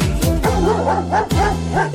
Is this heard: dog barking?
yes